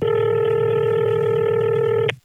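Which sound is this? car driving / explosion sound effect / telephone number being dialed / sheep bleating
telephone number being dialed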